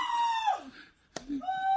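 A woman in labor, her baby coming, lets out loud, drawn-out screams, the first one sliding downward in pitch, then a brief sharp knock and another high, sustained scream, piercing.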